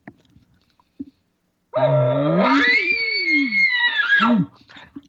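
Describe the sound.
An imitated elk location bugle: a loud, raspy low note climbs into a long, sustained high-pitched whistle lasting almost three seconds, then drops off in a short grunting tail, with no talking over it.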